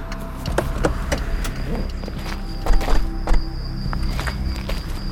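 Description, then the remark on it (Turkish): A car's hazard lights tick in a steady, even rhythm of sharp clicks over a low engine-like rumble and a faint high whine, with no one speaking, as an old car is pulled over to the right on a viaduct on the way to Beykoz. “Fren yaptığım yere gelince emektarı sağa çekip dörtlüleri yaktım.”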